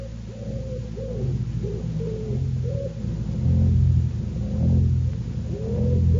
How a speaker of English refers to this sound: The house all empty, the doors standing open, only the wood pigeons bubbling with content and the hum of the threshing machine sounding from the farm.